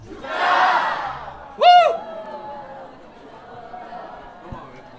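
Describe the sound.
An audience at a public broadcast of the show 걸신이라 불러다오 shouts a toast chant with glasses raised, answering the host: a loud, cheering group shout, followed by a sharp, strong yelled word, then quieter voices and chatter.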